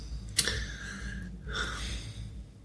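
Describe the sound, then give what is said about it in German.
A heavy snorting exhale with a sharp start, then a second, softer breathy puff shortly after. No one speaks. “schnauft.”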